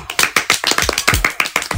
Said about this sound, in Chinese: 嗯，好，鼓掌。